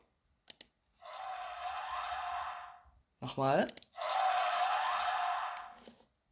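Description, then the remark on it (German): A raspy, breathy sound of the Wither, a video game boss monster, plays twice, each roughly two seconds of hissing, groaning noise, with a short spoken word between the two bursts. “Und er klingt so.”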